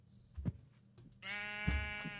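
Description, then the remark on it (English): A sheep in a video game lets out a long, wavering bleat that rings clear for about a second, following a couple of soft low thumps, with no talking. “Is the faces of the sheep? Yeah, they are downright creepy.”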